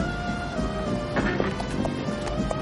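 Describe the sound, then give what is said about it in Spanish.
Horse hooves clip-clop along a village street as Don Quijote rides a horse through it, in an uneven, unhurried rhythm, the sharp knocks rising over a steady background of sustained tones and low rumble. “Don Quijote monta a caballo por las calles del pueblo.”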